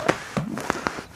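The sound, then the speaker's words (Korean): Crinkly, papery rustling of a stiff-textured padded jacket being worn and rubbed, in several short scratchy bursts over about a second, fairly quiet. “에, 예, 약간 바닥바닥하는 재질이라 이게 문지를 때마다 좀 이런 소리가 납니다.”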